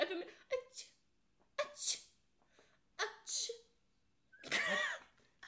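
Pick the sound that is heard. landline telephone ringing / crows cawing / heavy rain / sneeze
sneeze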